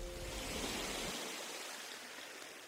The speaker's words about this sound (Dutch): En de zee is inderdaad azuur, blauw. Geen zandstrand, het is een kiezelstrand. Wat wij in België eigenlijk niet zo gewend zijn natuurlijk. Je hoort dus ook de golfslag van de zee op de kiezels. Heel duidelijk.